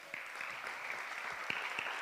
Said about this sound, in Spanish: Un aplauso para él.